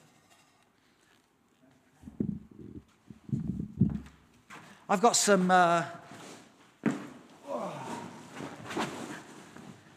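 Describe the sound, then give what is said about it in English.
Several dull thumps and bumps of furniture being shifted around for a couple of seconds, followed by a person talking. “I'm just going to move the furniture.”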